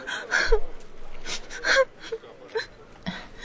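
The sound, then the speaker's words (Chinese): A woman cries at a noisy, bustling train station in halting bursts, with sharp gasping breaths, wavering moans and high whimpers over about three seconds, loud at first and then trailing off into softer sobs. “突然，一个哭声引起了他的注意。”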